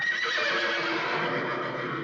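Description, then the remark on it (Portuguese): Horses neigh and whinny wildly in a loud, continuous, high-pitched chorus, several animals crying out at once with no pauses for the whole stretch, in a film scene where the horses go wild whenever a certain woman's name is spoken. “Ela é tão terrível assim que toda vez que falam sobre o nome dela, os cavalos ficam loucos, né?”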